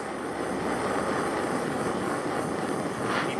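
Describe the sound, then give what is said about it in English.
A blowtorch flame roars steadily while heating a piece of wood, a dense, even hiss-and-rush of noise that holds the same loudness throughout with no voices. “I don't know if you're gonna be able to hear this or not, but this is a blowtorch.”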